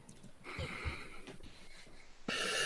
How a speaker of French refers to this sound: J'entendais les ronflements de ton chien.